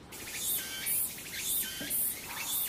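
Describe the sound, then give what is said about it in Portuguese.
A male tsukutsukuboshi cicada sings a loud, rhythmic call of shrill buzzing bursts repeating about twice a second, with a warbling lower whistle between pulses and no voices. “Essa mais esgoelada, quer dizer, esse mais esgoelado, porque dentre as cigarras só os machos cantam, então esse mais esgoelado é de uma espécie chamada popularmente de tsukutsukuboshi.”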